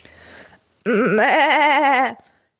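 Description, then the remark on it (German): A sheep named Elsa lets out a single loud, quavering bleat lasting just over a second, clear, in a voice message, after a brief stretch of faint background rustle. “Das Schaf Elsa hat uns eine Sprachnachricht geschickt.”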